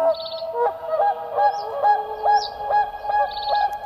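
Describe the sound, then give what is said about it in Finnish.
A swan calls repeatedly with loud, honking trumpet-like notes in a quick steady rhythm, about ten calls, with faint higher chirps in the background and no talking. “Siksi sen ääni muistuttaa ihmisen valitusta.”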